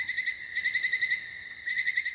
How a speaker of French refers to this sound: À la lumière de la torche apparaît un insecte étrange. Une sauterelle en forme de feuille. Ses deux ailes dressées se frottent et font caisse de résonance pour produire ce chant étrange.